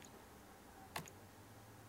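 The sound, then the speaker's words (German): A single sharp tap on a computer keyboard arrow key, pressed to step frame by frame through a full-screen video, a short crisp click with a faint echo right after, set against a quiet background with a low steady hum. “Ach so, es klingt so, als ob du dabei was tippst.”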